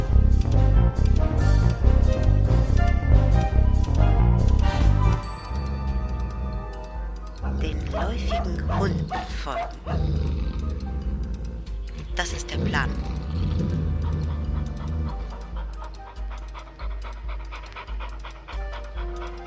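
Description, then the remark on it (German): A dog pants heavily and steadily over a dense, loud backdrop of music, with a few sharper bursts that could be barks partway through. “den läufigen Hunden folgen.”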